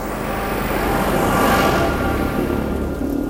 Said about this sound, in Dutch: Ik ga even heel snel aan de kant, want ik loop in het inmiddels donker en er komt een tractor aan met aanhanger, voordat hij mij niet ziet.